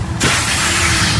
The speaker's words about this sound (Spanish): Cuando tu hijo pincha la rueda de tu coche nuevo, suena así.